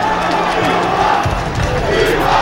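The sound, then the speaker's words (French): A loud, sustained roar from a huge stadium crowd, dense and unbroken, with rising shouts and chanting swelling throughout as thousands of voices build in anticipation of Marcus Thuram of Guingamp taking a penalty. “Écoutez le rouleau.”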